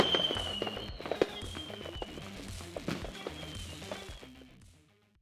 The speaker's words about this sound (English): We'll see you on the waters and make sure you're ready for some fireworks.